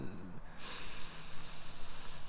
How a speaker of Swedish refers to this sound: Andas genom näsan. Lukta.